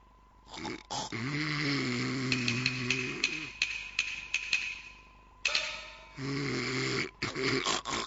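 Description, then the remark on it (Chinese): A person who has fallen asleep snores loudly, two long, rasping, buzzing breaths of about two seconds each, separated by hissy, breathy snorts and clicks. No one talks. “哎呀，想不到母老虎还只会打瞌睡呢！”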